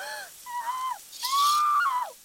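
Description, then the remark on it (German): A woman under a cold shower makes three loud gasping, hooting breaths in quick succession from the sudden cold, each a voiced 'hooo' that drops off at the end, with a breathy rush during the longest one. “wegen der plötzlichen Kälte ein paar schnelle, tiefe Atemzüge machen. Quasi anfangen, so lustig zu japsen.”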